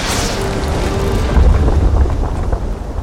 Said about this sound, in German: Er hört, wie der Fels Joes Rucksack streift, drückt sich so gut er kann an die Felswand und schließt die Augen. Und dann spürt er den Wind des vorbeirauschenden Felsens im Gesicht.